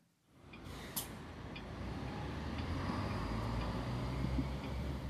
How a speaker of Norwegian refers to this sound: Det er torsdag kveld på plass, og trafikken durer av gårde på Jegerstaset. Vinteren er kommet til Wien, det er kveld, og det er lite her som vitner om dramaet og den dystre historien som for alltid vil være forbundet med disse områdene.